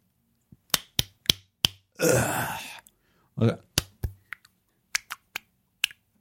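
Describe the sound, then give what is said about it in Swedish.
A person makes a series of sharp, wet mouth pops by pulling a cheek against the gums, imitating men slapping their own bodies in a sauna: about a dozen irregular smacks, broken midway by a long breathy exhale. “Nu sitter jag och drar i kinden så här. Mot tandköttet.”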